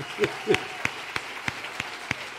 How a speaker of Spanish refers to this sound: ¿Quién hace eso? No, pero si aplauden, vamos a aplaudir fuerte.